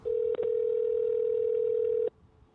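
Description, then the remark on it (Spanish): A loud, steady telephone dial tone of an outgoing call holds at one pitch for about two seconds, broken by a brief dropout near the start, then cuts off abruptly, leaving faint background noise. “Vamos allá, vamos a llamar aquí, yo soy loquito, vamos allá.”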